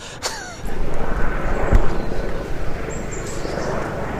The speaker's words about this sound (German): Ich würde sagen, wir warten den Helikopter nochmal ab. Aber es ist glatt der Klassiker. Wir fangen an und irgendwas ist, ne?